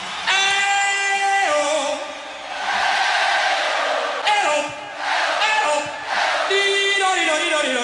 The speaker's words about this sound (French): qui fait chanter la foule